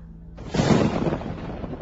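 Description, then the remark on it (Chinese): A sudden crack of thunder breaks in and rolls into a loud, deep, sustained rumble that continues steadily without fading. No voices are heard. “打雷了，要下雨了。”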